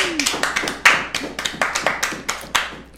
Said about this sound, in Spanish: ¡Aplausos! ¡Bravo!